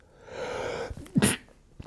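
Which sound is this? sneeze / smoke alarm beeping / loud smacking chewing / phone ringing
sneeze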